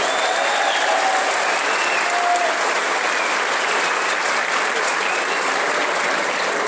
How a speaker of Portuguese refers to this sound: E quem acha que o agro de São Paulo merece uma salva de palmas aí, dá uma salva de palmas para nós.